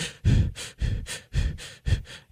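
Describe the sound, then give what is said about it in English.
A voice imitates heavy, panicky breathing: about eight quick, rasping breaths alternating in and out in a steady, rapid rhythm, fairly loud, like someone hyperventilating, mimicking a nervous baseball pitcher holding the ball on the mound. “and I was like, man, he's really breathing heavy. Hyperventilating?”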